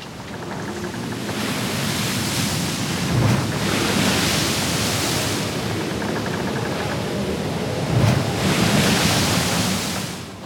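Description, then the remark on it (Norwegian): Rough sea surf roars continuously with gusting wind in a strong storm, loud, as waves surge and break in broad swells roughly every few seconds. No one speaks. “Det er 2. oktober 1904, og det er eh, kraftig storm.”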